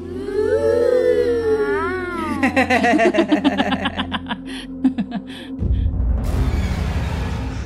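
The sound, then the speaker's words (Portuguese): A single voice mimics a crowd of children, starting with a high, wavering wail and breaking into quick giggly, chattering bursts before a rush of hissing noise takes over. “O Sibilo faz o som da, da criançada lá.”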